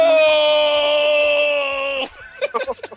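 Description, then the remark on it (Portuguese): A voice imitates a loud, drawn-out scream from a beach scene in the film Eurotrip, held steady for about two seconds, then breaks off into a few short, choppy vocal bursts. “com esse berro, os homens da praia ouvem.”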